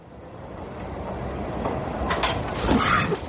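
A Madrid metro train rumbles along the track, a steady low roar with brief metallic screeches and rattles rising near the end, loud.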